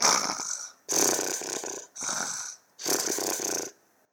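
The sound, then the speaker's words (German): A pig snores in its sleep: four harsh, raspy snorts in a steady rhythm, each just under a second long with brief pauses between them, fairly loud with no talking. “Grunz, grunz, jetzt bin ich satt und schlafe ein bisschen.”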